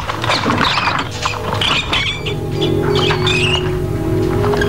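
Hungry rats in a cage squeak in shrill, chirping bursts while claws scrabble and patter steadily underneath as a lever sends them into the cage's first section, a busy, continuous agitated racket with a low mechanical hum beneath it.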